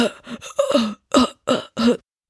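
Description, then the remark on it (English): A person loudly imitates the obnoxious coughing of a man leaning out of a stopped car's window at people crossing the street: a rapid series of about five harsh, voiced cough bursts, exaggerated, almost yell-like, with brief gaps between them and no talking. “One of the cars, there's a dude who rolls down his window, sticks his whole freaking half of his body out of the car, and starts coughing obnoxiously like this.”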